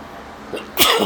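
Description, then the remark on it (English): A single sudden, loud sneeze bursts out in a restroom near the end after a moment of quiet, with a sharp airy hiss that trails off briefly. “so this is this now the sneezing podcast.”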